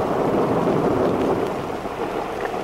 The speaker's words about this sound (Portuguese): Eu tentei segurá-los, mestre, mas eles ficaram assustados com a tempestade.